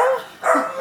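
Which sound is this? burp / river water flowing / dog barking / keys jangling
dog barking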